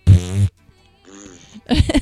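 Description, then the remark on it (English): A voice makes a loud, buzzy fart noise with the mouth for about half a second. A quieter vocal sound and another short, rough burst follow. “they're not quiet farts. They're they're the loud ones.”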